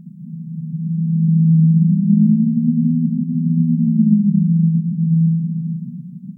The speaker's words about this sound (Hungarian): de a legjobban talán úgy tudnám leírni, hogy egy nagyon mély, hullámzó búgó hang.